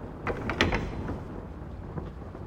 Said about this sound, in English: From the blackness froze my steps in paralysis of terror. The latch of my chamber door was being lifted from without.